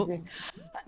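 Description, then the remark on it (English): A single sneeze, a sharp breathy burst of noise that stops abruptly, surrounded by brief voiced sounds. “bless you.”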